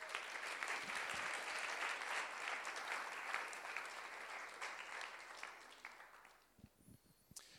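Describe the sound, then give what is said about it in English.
A crowd claps steadily in dense, sustained applause for about six seconds, welcoming two guests to the front, then the clapping thins out into a few scattered claps before fading away. “Just give them a little welcome.”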